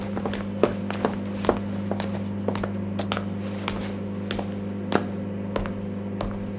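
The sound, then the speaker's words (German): Steady footsteps of a woman walking back to the bathroom across a hard floor in an apartment, a series of light taps at an even pace, set against a constant low electrical hum with no talking. “Sie öffnet die Tür und geht zurück ins Bad.”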